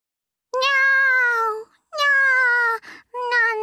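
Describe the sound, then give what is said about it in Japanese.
A cat meows three times up close: two long, drawn-out meows followed by a shorter one, loud and clear with no other sounds around them. “今日のコラムの主役は可愛くっていつもニャーニャー言っている猫ちゃんです”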